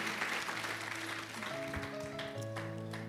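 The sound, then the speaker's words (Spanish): An audience applauds the Lord at a church service, a dense, steady wash of clapping hands that stays loud throughout, with sustained musical tones or organ-like notes sounding beneath the applause. “Apláudele fuerte al Señor, por favor.”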